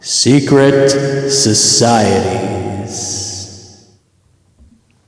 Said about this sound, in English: it's like the one effect that I have. It's it's a reverb, and, and I and I just I jump at every opportunity to use it.